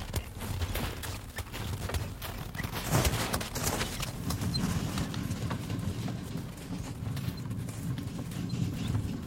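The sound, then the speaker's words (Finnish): Horse hooves clip-clop in a steady, continuous rhythm at moderate loudness over a low rumbling background, with no one talking, as harnessed horses travel across Lake Kallavesi toward Kuopio in the spring ice season. “Isäntä valjastaa hevoset kevätjääden aikaan ja talosta saatellaan Kallaveden poikki Kuopioon.”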